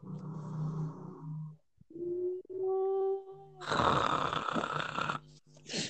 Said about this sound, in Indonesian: Dengkuran. Iku bagiku iku rek. Nanti ya Allah iki diesel jam piro sih wis moro mati lampu tagak yo.